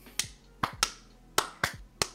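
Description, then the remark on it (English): Seven sharp, crisp hand claps in an uneven, slightly hurried rhythm, each a loud snap that dies away quickly, with no one talking. “the hand, the literal hand clap of praise right now.”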